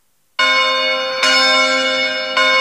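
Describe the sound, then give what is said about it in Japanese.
A large bell tolls loudly, three strikes roughly a second apart, each ringing with rich sustained overtones that carry over into the next strike, with no voices present. “鐘が鳴っております。”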